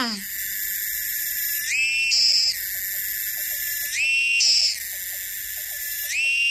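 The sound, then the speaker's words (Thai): An insect's call: a loud, continuous shrill drone that swells and shifts pitch every couple of seconds, with faint rapid ticking underneath and no voices. “ได้เลยค่ะ ตอนนี้เจ้าตัวนี้อยากทักทายเป็นเสียงร้องแล้ว ไปฟังกันเลยค่ะ”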